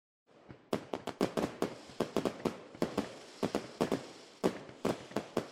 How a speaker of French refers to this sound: Les feux d'artifice retentissent à l'horizon. Toute la ville de Chengdu semble exploser de joie à chaque fois qu'une nouvelle couleur apparaît. Boum, boum, boum.